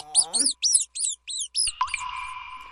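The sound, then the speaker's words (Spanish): Laboratory mice squeak in a rapid run of about six sharp, high-pitched chirps, fairly loud, then a steady buzzing tone takes over to the end. “Ratones de laboratorio.”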